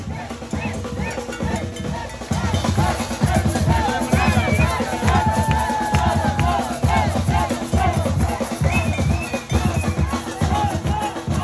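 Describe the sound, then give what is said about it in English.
A dense, noisy Day of the Dead parade crowd, with Catrinas and giant floats, keeps up a steady roar of overlapping voices and shouts, with rhythmic low booming and scattered whistles or horns rising above the din throughout. “we made it to the parade on time”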